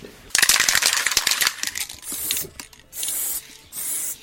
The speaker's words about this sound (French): Mine de rien, tu fais comment pour les pour tout ce qui est odeur, etc. Parce que là, on le sent, t'as un peu bombé, ça, sent très fort.